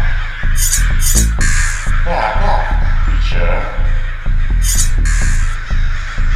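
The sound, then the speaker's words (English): Harsh crow caws ring out in repeated bursts, several Blood Crows calling loudly as they descend to attack, over a dense, rumbling background. “The Blood Crows descend.”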